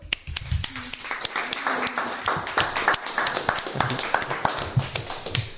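A small group on a radio show claps for a columnist after his segment, the sharp, uneven hand claps running steadily throughout at a moderate volume, with faint murmuring voices underneath.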